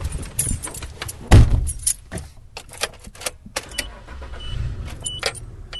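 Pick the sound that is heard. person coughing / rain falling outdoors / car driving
car driving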